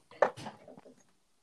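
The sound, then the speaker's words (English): A quiet swallow of a sip of water: a soft wet gulp followed by a couple of faint throat clicks, with no talking. “He's swallowing.”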